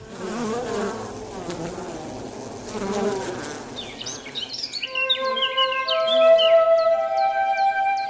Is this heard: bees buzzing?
yes